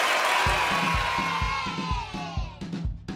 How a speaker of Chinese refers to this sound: 节目一开始，先让我们掌声欢迎哈拉充能量。